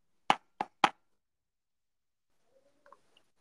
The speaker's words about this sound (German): So, jetzt klopf ich auf den Tisch.